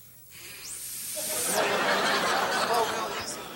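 Air blown through a small opening: a thin, high faint whistle tone rises and holds for about a second, then gives way to a steady, louder breathy hiss lasting a couple of seconds.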